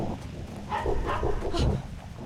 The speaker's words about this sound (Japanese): その時犬の鳴き声が聞こえてきました